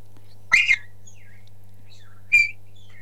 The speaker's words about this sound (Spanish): A ver, vamos a silbar.